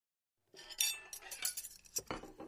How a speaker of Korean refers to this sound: 우리는 아무 말 없이 테이블을 정리했다.